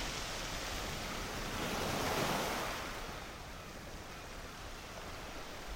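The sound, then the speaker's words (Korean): Ocean surf breaking against basalt rocks below a lighthouse, one wave swelling to a broad crash around the middle before receding into a steady, hissing wash of water and wind. “부서지는 파도의 알맹이들이 분무기에서 뿌려지듯 내 얼굴에 와 닿는다.”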